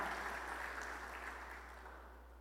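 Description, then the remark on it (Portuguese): A crowd at a worship service claps steadily together, a dense wash of many hands, gradually tapering off slightly toward the end with no voices over it. “Nós queremos aplaudir todos vocês, porque vocês são especiais, amém?”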